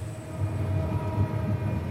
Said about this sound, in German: Der Motor läuft jetzt unter Volllast. Und das hört man auch, wenn Eduard Berchtenbreiter die schwere Eisentür zum Blockheizkraftwerk kurz öffnet. 130 Dezibel, so laut wie ein startendes Flugzeug aus geringer Entfernung.